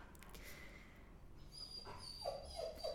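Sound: dog whimpering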